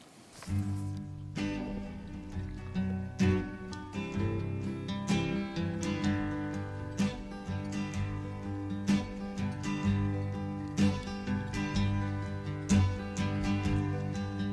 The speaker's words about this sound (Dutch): …. Het klinkt zo.